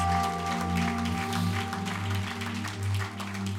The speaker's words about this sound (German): Können wir dem Team, das das alles ermöglicht, mal einen riesen Applaus geben. Vielen, vielen, vielen, vielen, vielen Dank.